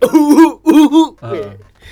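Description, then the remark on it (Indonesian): A loud run of four or five voiced, hacking coughs in quick bursts, trailing off into a rougher, lower throat-clearing rasp. No speech around them. “Channel batuk”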